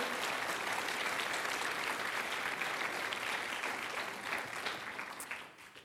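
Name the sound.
audience applauding loudly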